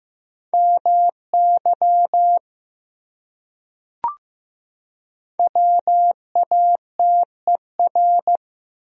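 Morse code tones sent at 15 words per minute: a steady, mid-high beep keyed into short dots and longer dashes, sent in two quick bursts separated by a pause with a single soft click. No voices.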